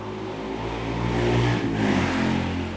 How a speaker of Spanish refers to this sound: y sin esa moto pedorra